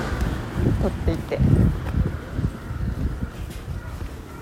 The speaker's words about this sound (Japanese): 今風が吹いてるからあれかな